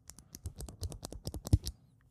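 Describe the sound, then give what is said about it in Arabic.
A spring-loaded pen is opened and its spring pressed, giving a quick, uneven run of about a dozen small plastic clicks and rattles, with one sharper snap near the end and no voices. “اوكي نفتح هذا القلم بسبرنجه وندوسها”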